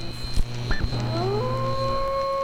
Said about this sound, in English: Oh, for the love of God, not the wolves again.